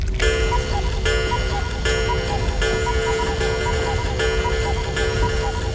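A cuckoo clock rings out loudly with rich, sustained metallic tones, struck in a steady repeating rhythm under a low rumbling background. No one speaks.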